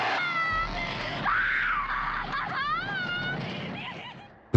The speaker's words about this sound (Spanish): y como Sally, que es la protagonista, interpretada por Marilyn Burns, grita, ¿no?